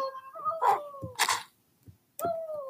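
A dog whines in high, drawn-out tones, punctuated by a few sharp yips and bark-like bursts, with a short pause before the whining resumes.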